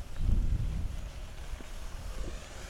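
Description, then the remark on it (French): A car passes on a cycle path: a deep rumble swells in the first half-second and then settles into a steady low drone with wind-like hiss. No one speaks. “Ah, il y a une voiture qui passe.”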